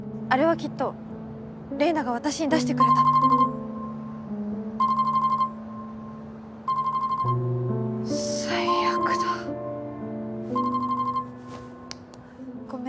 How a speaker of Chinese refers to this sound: 没想到突然一个电话打来。